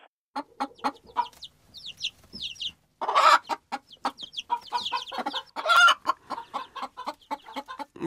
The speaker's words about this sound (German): Das war eindeutig. Na, hast du gehört, was das war für ein Tier, ne? Ja. Genau, das war ein Huhn.